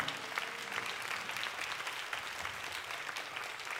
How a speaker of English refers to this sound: I'm going to make everybody clap for that.